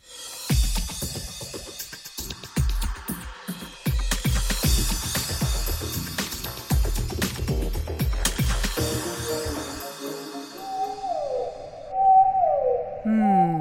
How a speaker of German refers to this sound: so klingen Blauwale. Wahlgesänge sind eine faszinierende Art der Verständigung. Das funktioniert über hunderte von Kilometern unter Wasser.